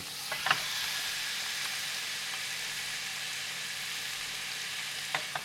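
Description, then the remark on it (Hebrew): Meat sizzles steadily in a hot pan, a dense crackling hiss throughout with a few sharper pops near the start and end, fairly loud, with no voices. “אתם שומעים את ה... הם בטוח שומעים. אתה שומע? אתה נצרב, אני שומע.”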